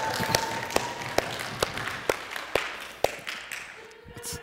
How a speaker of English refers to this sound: they actually genuinely clapped for you